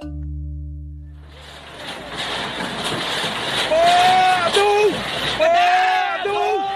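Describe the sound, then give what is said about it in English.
A noisy crowd of protesters clamours after a brief low hum, with several raised, wavering voices shouting over a dense, continuous din: community members in the Baram region rallying against the bulldozing of their longhouse. “This is a sound of protest as community members in the Baram region rally against the bulldozing of their longhouse, the centre point of the community.”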